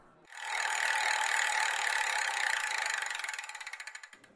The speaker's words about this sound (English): now we have a huge wheel that we're going to spin. Uh, Price is Right style